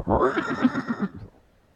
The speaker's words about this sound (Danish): Få tjek på de mini-heste